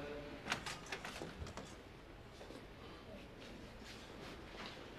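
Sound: door opening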